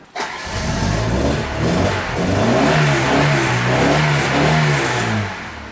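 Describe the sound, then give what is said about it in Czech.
A vintage car engine in Dolní Vítkovice, Ostrava, cranks and catches, then revs up and down in rough, throaty waves over a steady rumbling idle, loud throughout and with no voices. “a mohl bys mi prosím tě ještě nastartovat my se tady tak pěkně schováváme teď v tom přívěsu, protože tady v Ostravě v Dolních Vítkovicích nám prší štěstí.”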